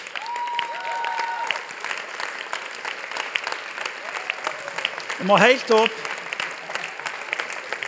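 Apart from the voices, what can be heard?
audience applause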